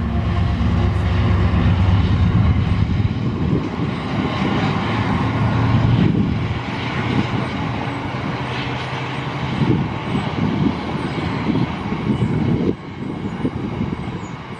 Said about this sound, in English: this General Electric built European locomotive departing Wakefield Kirkgate on June 23rd of this year.